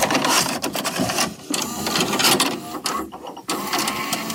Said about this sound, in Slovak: Zvuk, ktorý jej najviac pripomína detstvo, je vkladanie magnetofónovej kazety do veže alebo videokazety do prehrávača. Mm-hmm. Takto vkladanie videokazety si môžeme pripomenúť. To znelo takto.